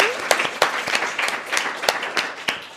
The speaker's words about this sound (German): Und dann bedanken wir uns recht herzlich bei dem Publikum, was nochmal für sich selbst klatscht, weil, hallo?